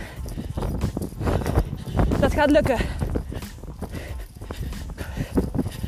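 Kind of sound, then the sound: human body sound, running footsteps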